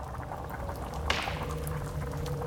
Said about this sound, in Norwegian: Og i ei jerngryte bobler og syder et underlig innhold.